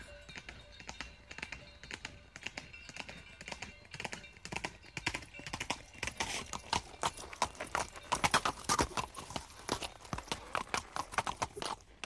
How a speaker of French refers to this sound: au coucher du soleil, alors qu'il rassemblait son troupeau, un cavalier vêtu d'un costume en argent apparut et galopa jusqu'à Pierre.